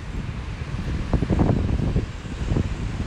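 Strong, strengthening wind buffets the microphone at a temperature of about 21 degrees, producing a steady low rumble with rougher gusty bursts that swell in the middle and again near the end. No one speaks.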